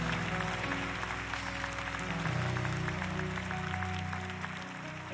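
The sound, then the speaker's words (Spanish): An audience breaks into steady applause to show they believe anything can happen in the presence of God, a dense wash of many hands clapping at an even level throughout, with a low sustained musical tone underneath and no talking. “Aplaudan si creen que cualquier cosa puede suceder en la presencia de Dios.”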